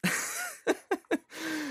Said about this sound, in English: God, I feel like I have to like die. I got the cough or something, but I can't get it out.